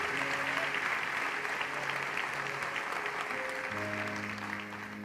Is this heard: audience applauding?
yes